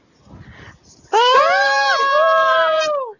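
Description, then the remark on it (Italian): A quiet murmur of voices gives way to a single loud, sustained high-pitched scream of excitement, shrill, wavering slightly in pitch for about two seconds before cutting off. “questo è il grido prima dei concerti di … delle quarantenni, cinquantenni”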